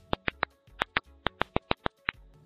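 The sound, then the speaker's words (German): A series of about eleven sharp, dry ultrasonic popping clicks from stressed tomato or tobacco plants that lacked water or were cut back, recorded in a greenhouse, distinct and spaced irregularly over a quiet background with no voices. “Es klingt also wie ein Ploppen, die Forscher gehen davon aus, dass diese Töne aus dem Inneren der Pflanzen kommen.”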